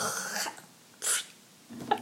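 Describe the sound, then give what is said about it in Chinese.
A voice imitates someone hawking up phlegm before spitting, the sound heard in South Korea: a long, raspy throat scrape, followed by two shorter harsh, gurgly bursts with brief pauses between, no words spoken. “你知道我在韩国最熟悉的声音就是那个吐痰的声音”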